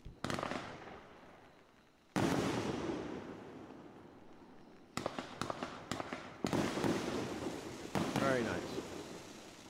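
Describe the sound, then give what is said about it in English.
A Spider Nebula consumer firework cake goes off in a rapid run of sharp, booming bursts with crackling tails, loud, pausing briefly before more volleys fire in quick succession. “It's a nice finale.”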